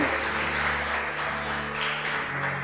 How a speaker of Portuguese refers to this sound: Aplauda o Senhor